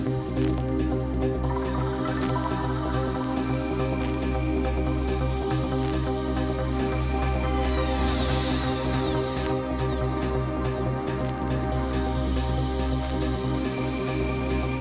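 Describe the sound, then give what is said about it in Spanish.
Steady vinyl record crackle in the background, a dense scatter of tiny pops and clicks running throughout, layered over sustained music with low, held tones. No one speaks. “Y ahora entre este sonido que escuchas de fondo a vinilo”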